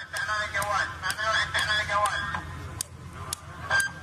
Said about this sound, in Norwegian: Dette er lyden av piskeslag mot ryggen til Raif Badawi. På videoopptaket står den 31 år gamle bloggeren med ryggen til folkemengden. Bundet på hender og føtter gir han ikke fra seg en eneste lyd.